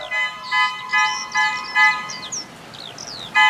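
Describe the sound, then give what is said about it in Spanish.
A bread vendor riding his bicycle in the afternoon honks its horn repeatedly, about seven short, brassy squeezes in an uneven rhythm, fairly loud, with a faint background hiss and no talking. “Por la tarde suena la bocina y yo ya sé que se viene el chavo del pan dulce en su bicicleta, con corbatas, cuernitos y teleras.”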